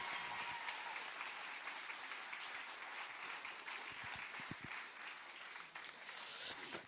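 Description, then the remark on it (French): A church audience applauds steadily to encourage people making a commitment to baptism, a dense, sustained wash of many hands clapping at an even loudness throughout, with a few scattered whoops and voices mixed in toward the end. “Est-ce qu'on peut à nouveau les applaudir bien fort et vraiment les encourager dans ce pas de foi”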